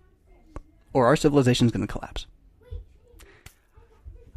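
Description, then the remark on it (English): Children's high-pitched voices and shouts ring out in the background while an adult keeps talking, with a loud burst of kid noise early on and scattered clatter afterward. “You can hear my kids right now.”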